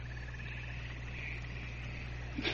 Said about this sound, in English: those are frog mating calls